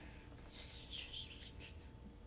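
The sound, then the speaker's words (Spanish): A voice imitates soft whispering, a breathy, hissing murmur of about a second and a half with no clear words, quiet against a low background rumble. “Como si te estuvieran susurrando. Como que me están susurrando, pero no, puedo entender.”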